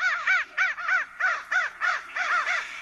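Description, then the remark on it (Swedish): Harsh, hoarse raven caws repeat in a rapid, uneven series of about eight calls, loud, with no voices, in a film scene where ravens devour the character Screw-Eye. “Min favoritscen är när Screw-Eye blir förtärd utav korparna där.”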